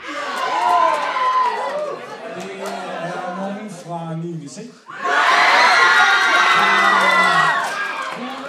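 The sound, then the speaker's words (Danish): A crowd of about 80 ninth-grade students cheers and shouts excitedly at a hackathon winner announcement after two days of work, with a brief dip before an even louder burst of whoops and yelling that stays loud to the end. “Og hold nu fast, sådan her lyder det, når man vinder hackathon oven på to dages hårdt arbejde.”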